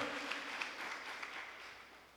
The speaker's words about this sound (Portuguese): Aplauda o Senhor porque Ele é vivo. Aleluia.